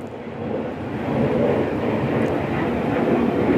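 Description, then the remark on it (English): A steady, broad roar of an airplane passing overhead swells in after the first half second and holds loud and even, with no voices. “Okay, so, and you might be able to hear that plane that's flying over just now.”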